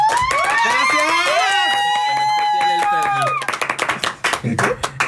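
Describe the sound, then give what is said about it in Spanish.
A burst of lively clapping from several people applauding guests, with a long rising cheer or whoop over the first half before the applause carries on alone and tapers off. “Y pues un aplauso para estos grandes y preciosos invitados que tengo el día de hoy.”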